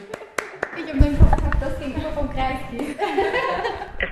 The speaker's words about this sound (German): Wahnsinn! Gleich bei der ersten Nachricht. Applaus.